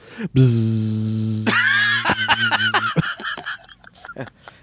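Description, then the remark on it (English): A voice imitates a duck quacking: one long, loud nasal honk followed by a rapid run of shorter quacks that gradually taper off. “Quack, quack, quack.”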